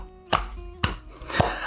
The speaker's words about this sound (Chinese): 好像大家不太喜欢这种东西，那我还是就是自己拍手好了，听起来有点凄凉，就蛮适合你。